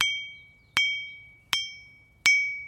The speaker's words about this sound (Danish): Det er altså flint, og det synger, fordi der ikke er nogen vandbobler eller frostspringninger indeni.